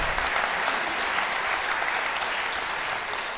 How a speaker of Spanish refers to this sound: Así que si la comedia peruana hoy es lo que es, es gracias a mi madre. Un fuerte aplauso para mi mamá, verdad, verdad.